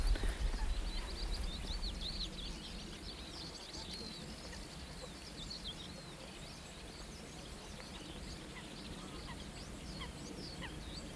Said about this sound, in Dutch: We horen op de achtergrond ook eh, de Chifchaf, die zijn eigen naam roept. En dat kan hij de hele dag zo eh, doordoen.